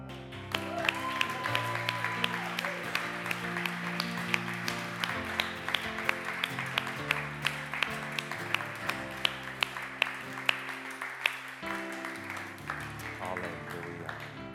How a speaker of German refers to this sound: Und jetzt gehen wir zusammen Jesus einen fetten Applaus.